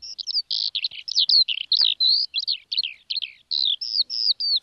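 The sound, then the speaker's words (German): A skylark sings a rapid, unbroken stream of high, warbling trills and chirps, bright, with barely any pause between phrases and no voices; a recording taken from a radio broadcaster's sound archive. “Wir haben ja ein Geräuschearchiv hier im Funk und habe mal einen Lerchengesang mir mal rausgeholt.”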